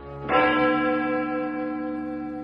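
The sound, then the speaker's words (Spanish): A single heavy strike of a great bell, from Clive Barker's Hellraiser, rings out loud, its deep, rich tone sustaining and humming slowly as it fades, with no voices. “Tan concentrado estaba Frank en la resolución del enigma de la caja de Le Marchand que cuando comenzó a sonar la gran campana no la oyó.”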